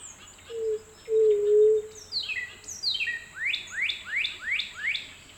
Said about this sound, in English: I make a special effort to home in on the white-tipped dove and end up with a great soundscape portrait, as long as you like the incessant buzz of a lone hoverfly that insisted upon joining the chorus.